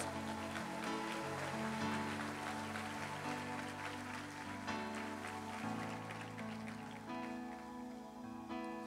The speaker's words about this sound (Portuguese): Estão dando glória a Deus aí bem forte, uma salva de palmas a Jesus.